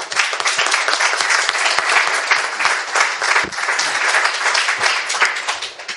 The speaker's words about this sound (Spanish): Pido un aplauso para él, por favor.